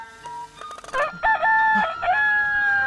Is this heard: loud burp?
no